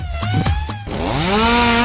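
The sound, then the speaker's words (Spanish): A chainsaw engine idles with a buzzy, sputtering drone, then revs up sharply into a loud, rising whine. It is continuous, with no voices. “También tengo una, motosierra, ¿eh, Arián?”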